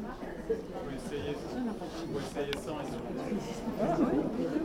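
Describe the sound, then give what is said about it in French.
A steady murmur of many voices of an audience in a hall talking at once, a continuous indistinct crowd hubbub with no single speaker standing out, with occasional brief knocks and shuffles. “Parce que les gens parlent.”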